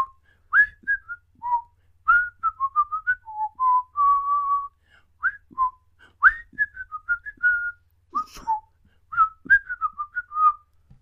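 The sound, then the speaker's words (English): A person whistles the theme tune of the TV show Friends alone, a bouncy melody of short repeated notes and a few held tones, with brief pauses between phrases. “I'm assuming it's going to be friends, but it sounds nothing Correct.”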